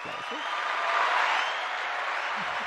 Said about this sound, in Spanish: Por favor, aplausos. Aplausos, por favor.